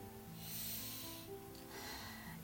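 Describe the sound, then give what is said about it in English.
A single deep, slow breath, airy and steady for a couple of seconds, with a soft low hum underneath, taken during guided breathing between Psalm readings. “Let's focus I'm breathing again.”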